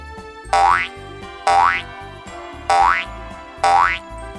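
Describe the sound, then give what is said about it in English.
A cartoon boing sound effect repeats four times in a steady bouncing rhythm as the story character Roy jumps round and round, up and down, each springy twang rising in pitch, loud, over a light musical backing with no voices. “Roy jumps round and round, up and down.”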